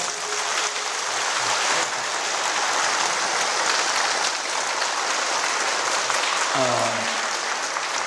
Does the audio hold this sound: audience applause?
yes